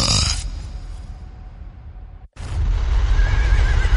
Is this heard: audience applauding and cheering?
no